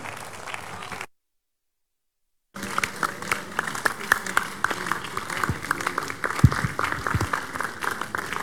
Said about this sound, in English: For this amazing act of God, shall we rise to our feet, giving Jesus a big, big hand of praise for what he has done.